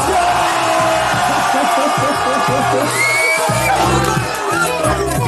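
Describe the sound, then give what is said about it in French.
A large crowd at an open mic cheers loudly and continuously, a dense roar of shouts and whoops that stays at full volume throughout, with a steady musical bass line pulsing underneath. “la foule en, délire. Hein. On, l'entend, ça casse presque, presque les oreilles tellement c'est fort.”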